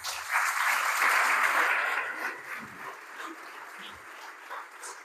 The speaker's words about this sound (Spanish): Gloria a Cristo, un aplauso a Jesús.